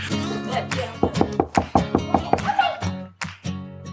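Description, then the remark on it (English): A quick run of about eight sharp, evenly spaced knocks by Ally Love on the front door of a family's house as a surprise visit, rapping out over a steady tonal background before things go quiet. “so let's check out what happened when our girl Ally Love surprised them with a little knock knock surprise.”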